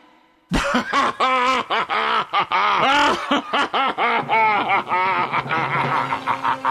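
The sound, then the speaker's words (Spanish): A laughing voice imitates a car engine starting with rapid, sputtering, laugh-like vocal bursts that settle into a steadier rumbling tone, loud. “Para, para, me río haciendo ruido de arranque auto.”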